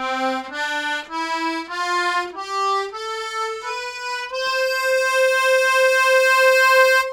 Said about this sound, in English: So what Daryl is using on that track sounds a lot more like this accordion, my grandpa's really old one, diatonic, than my piano accordion.